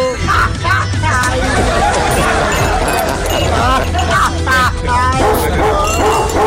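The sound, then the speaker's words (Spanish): A dog barks and yips repeatedly and loudly, tangled up with excited overlapping voices and general commotion throughout. “Amárrame, amárrame tu mendigo perro”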